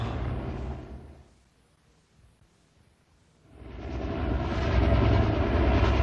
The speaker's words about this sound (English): We better hurry. Helicopter not have enough gas to last all night.